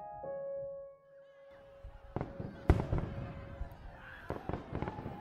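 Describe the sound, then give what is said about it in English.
Fireworks burst in a scattered series of sharp bangs, one especially loud, trailed by crackling and rumbling echoes, with a faint steady hum lingering underneath. “The fireworks had faded hours earlier.”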